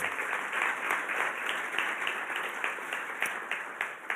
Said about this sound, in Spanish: ¿Cuántos lo creen? Dale un aplauso al Señor si tú lo crees.